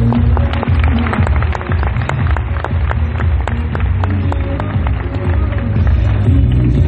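An audience applauding loudly and steadily, a dense patter of many hands clapping that holds an even level for about seven seconds, with no voices standing out.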